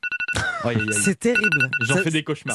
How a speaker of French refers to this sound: Ça nous fait du mal. Hein. Ah ça fait du mal. La fameuse sonnerie du réveil.